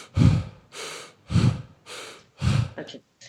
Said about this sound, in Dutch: doet het in door de mond en uit door de mond.